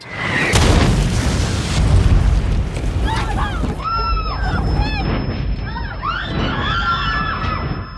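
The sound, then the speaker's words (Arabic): An artillery shell explodes, shaking a house: a heavy explosion bursts out with a deep, loud boom, then a long low rumble continues while voices rise and waver over the noise. “مجرد ما باخد أول خطوة تجي قذيفة من الزاوية”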